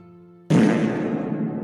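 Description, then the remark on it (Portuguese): A loud, raspy fart sound effect bursts in abruptly after a faint steady hum and keeps sputtering for about a second, prominent with no talking. “coloquei um som de peido para tentar dar uma, levantada.”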